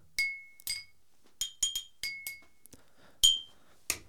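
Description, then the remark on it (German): Dishes are deliberately clinked and clattered to imitate background tableware noise, about ten sharp, irregular hits, each leaving a brief bright ringing tone like ceramic or glass knocking, with no voices over them. “Ach so, im Hintergrund Geschirrgeklapper.”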